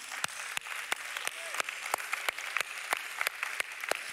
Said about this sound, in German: Hey, lass uns das mitfeiern, lass uns einfach mal klatschen.